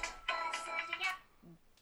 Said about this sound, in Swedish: Och jag ursäktar för min ringsignal.